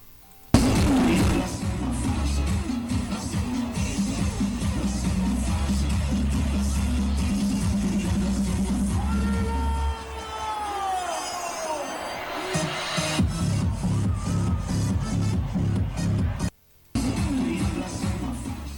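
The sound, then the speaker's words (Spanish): A loud, dense outdoor crowd celebrates in the Plaza Mayor of Segovia, Spain, on the afternoon of Christmas Eve, 24 December, with steady thumping music from DJs underneath and shrill whistle-like sweeps rising partway through, then a brief drop out near the end. “Pues este sonido corresponde con la tarde buena que se celebró en Segovia en la Plaza Mayor el precisamente el día 24 de diciembre, uno de los vídeos en los que se claramente un, los eh, DJs,”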